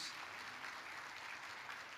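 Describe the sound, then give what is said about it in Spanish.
An audience at a religious gathering applauds steadily to congratulate a group of young men and women celebrating goals reached, a dense, continuous wash of many hands clapping at once, loud and even throughout with no voices standing out. “Denle un fuerte aplauso una vez más a estos hermanos”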